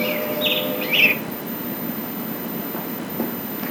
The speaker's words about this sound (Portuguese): como é bom ouvir os pássaros. Ai, Jesus, como é bom ouvir os pássaros.